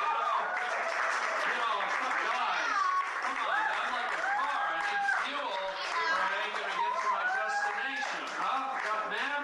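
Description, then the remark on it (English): A comedy club audience applauds steadily for several seconds, a dense wash of clapping mixed with whoops and overlapping voices, fairly loud and sustained throughout. “You know, how about a round of applause on that stuff?”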